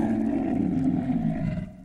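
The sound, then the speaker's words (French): A deep, menacing roar of a giant three-horned dragon rumbles loudly and steadily for nearly two seconds before fading out at the end, with no voices. “Soudain, une silhouette gigantesque apparut dans un rugissement effrayant.”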